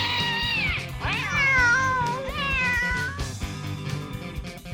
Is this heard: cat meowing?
yes